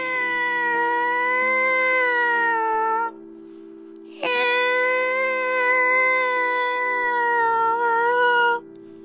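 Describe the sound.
A person imitates a cat with two long, drawn-out meows, each stretching several seconds and separated by a short pause. They're loud, over a steady low hum.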